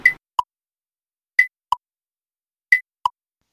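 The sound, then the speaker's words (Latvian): An emergency alarm signal designed on neurological principles with specialists from Stradiņš University: a two-note high-low electronic chime sounding three times in a steady rhythm, clear, with silence between repeats and no voices, before an evacuation announcement. “Šīs skaņas, ko mēs šobrīd eh, dzirdējām, eh, viņas ir balstītas neiroloģiskos aspektos, jo strādāju kopā ar Stradiņu universitātes speciālistiem.”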